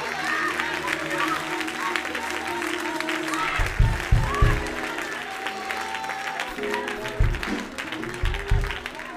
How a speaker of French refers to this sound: Applaudis Seigneur encore.